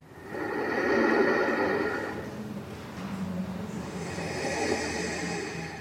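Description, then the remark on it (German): Slow, noisy swells of a person's breathing rise and fall in time with ocean waves breaking on a beach, two long surges filling the quiet with a soft, airy hiss. “Nur Meereswellen brannten an den Strand und im gleichen Takt hören wir jemanden atmen.”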